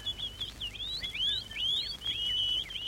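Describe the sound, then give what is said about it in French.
Birds sing in a steady stream of high, warbling chirps and trills, fairly quiet and continuous over a low background hum, with no voices. “les oiseaux chantent.”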